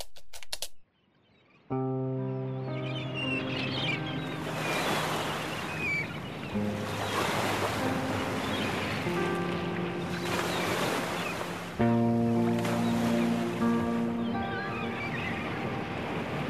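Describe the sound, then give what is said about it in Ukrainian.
Water washes and laps steadily against the shore of the Kyiv Reservoir on the Dnipro in Ukraine, mixed with a low, humming motor drone and some wind, continuing without pause after a brief quiet moment at the start. “Вочевидь Київське водосховище.”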